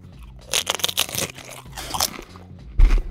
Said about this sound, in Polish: No moje ślinianki już zaczynają działać, więc to, co wszyscy nasi słuchacze z mizofonią kochają, czyli e, dźwięki jedzenia w audycji Jaja w kuchni.